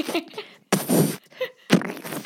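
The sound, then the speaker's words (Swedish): A person makes a mock pooping noise with their mouth, demonstrating how pooping sounds: a couple of wet, sputtering bursts, one longer and one shorter, between softer breathy sounds. “det kanske kan bli en sån här stående grej att vi bara, hur låter det när du bajsar?”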